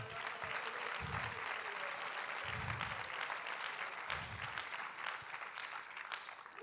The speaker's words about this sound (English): Say my family's coming. Go ahead and clap your hands again.